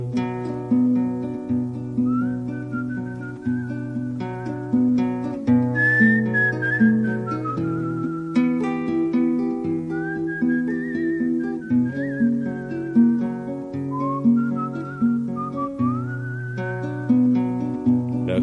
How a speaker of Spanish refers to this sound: Y yo quedé con los perros, chiflando para no pensar.